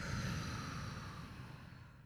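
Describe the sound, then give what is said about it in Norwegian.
A long, steady exhalation during a breathing exercise, a soft breathy rush of air lasting about two seconds and tapering slightly toward the end, with no talking. “Og så en lang utpust.”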